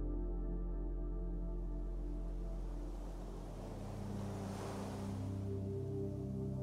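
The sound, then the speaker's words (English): Soft ocean waves swell and wash in once, a gentle rush of white noise rising and fading over a steady, low droning hum that runs throughout, with no voices. “As you hover into your imagination, away from the present to a faraway place, hear the soft white noise sound of rolling ocean waves.”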